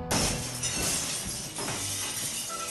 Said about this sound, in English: The sound of glass breaking.